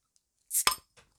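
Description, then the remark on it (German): A bottle being opened without a pop: a brief airy hiss followed by a sharp click of the cap, then a faint small tap. Fairly quiet, with no voices. “Äh, gefloppt hat's schon, geploppt hat's nicht.”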